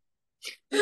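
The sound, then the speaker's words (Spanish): A single sneeze caused by an allergy: a brief breathy intake, a short pause, then a loud, sharp explosive burst that cuts off at the end. No one speaks. “Perdón, me dio alergia.”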